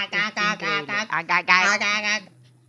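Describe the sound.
A voice imitates the squawky 'ack ack' chatter of the Martians from the film Mars Attacks, a rapid string of about eight or nine clipped, nasal 'ack' syllables delivered fairly loud, then stops abruptly.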